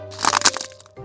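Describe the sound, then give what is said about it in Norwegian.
A sharp cracking snap bursts out over a low steady hum, a quick cluster of brittle crackles lasting under a second before the background drone settles back. “Det var lyden av lesekoden som knakk.”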